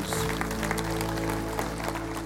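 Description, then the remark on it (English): A crowd applauds for Jesus one morning, a dense wash of many clapping hands at an even loudness throughout, with a sustained low musical tone humming underneath. “Come on, give Jesus a big hand this morning.”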